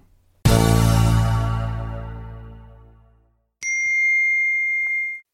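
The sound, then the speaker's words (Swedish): A phone notification ding, signalling that a new ad was posted on an online classifieds site, rings out loud, its bright tone fading slowly over about three seconds, followed by a short, steady high-pitched beep. No voices. “Som vanligt så signalerade min telefon att en ny annons på den stora annonssidan på nätet hade lagts upp.”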